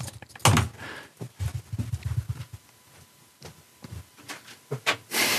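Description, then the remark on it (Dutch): A door of the BNR radio studio is pushed shut, with a loud thump early on followed by rubbing, creaking and shuffling handling noises, ending in another solid knock as it settles closed. “Uh, Normaal ga je nu gelijk door met afsluiten ja, maar ik doe wel even de deur in. Ja, de deur even dicht.”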